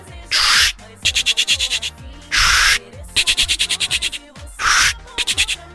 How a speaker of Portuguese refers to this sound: É um, é um telefone de, de rodar? Isso, esse é cara.